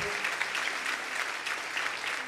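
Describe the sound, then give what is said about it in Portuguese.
A crowd applauds steadily, a dense wash of many hands clapping at once, sustained and even throughout with no pauses or voices breaking through. The people are applauding to the Lord for a family. “Vamos aplaudir ao Senhor por essa família.”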